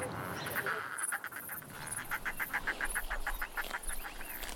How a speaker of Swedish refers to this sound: Eh, sen får vi höra lite eh, fåglar från eh, Färöarna.